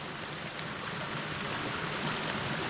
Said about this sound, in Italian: È una cascata, la vedete? Finisce in un abisso gigantesco. Camminate piano, le rocce sono umide. È una voragine spaventosa, non se ne vede il fondo.